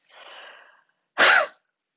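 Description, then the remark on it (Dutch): A soft, drawn-in breath, then one short, forceful breathy huff: an H blown out with a burst of air from the belly and flanks to clear mucus from the vocal cords. Fairly loud, with no talking. “je blaast een H aan met een luchtstoot vanuit de buik en vanuit je flanken”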